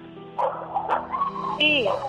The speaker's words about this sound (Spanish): ¿Quién te está echando los perros, mija? Porque hasta acá oigo la ladradera.